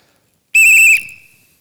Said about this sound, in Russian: Сразу свисток.